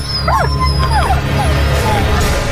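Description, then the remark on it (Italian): A dog yelps and howls, several short rising-and-falling cries in quick succession over a steady low background rumble. “E il cane si è impiccato.”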